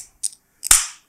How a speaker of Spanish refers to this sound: Me abro una chelita de la marca que tú quieras